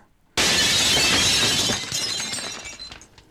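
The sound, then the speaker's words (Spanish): All the glass windows of a house shatter at once in a sudden loud crash, followed by a couple of seconds of tinkling, scattering shards that gradually thin out and fade. No voices. “Yo estaba muerta de miedo, porque justo en ese momento la cama en la que estaba acostada comenzó a sacudirse fuertemente y todos los vidrios de la casa se rompieron al unísono.”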